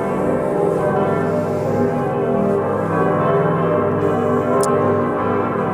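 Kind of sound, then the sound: signal or alarm, church bells ringing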